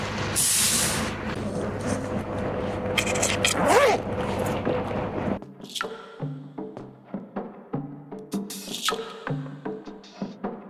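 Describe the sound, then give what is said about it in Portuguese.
Inside a moving city bus, a sharp hiss of air brakes opens over a loud rumbling ride. The noise then drops away, leaving quieter, intermittent tonal thumps and clatter. “Ai, já tô no ônibus, já, graças a Deus.”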